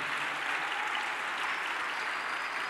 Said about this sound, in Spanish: Denle un aplauso fuerte a nuestro Dios esta mañana.